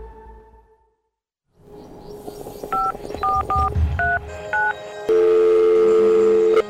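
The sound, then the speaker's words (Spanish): A series of short two-tone telephone keypad beeps, about six presses in an uneven rhythm over background noise, followed by a steady ringback tone as a son's call to his mother connects. “Estoy llamando para decirle que no voy a poder pararme a beberme el cafecito hoy.”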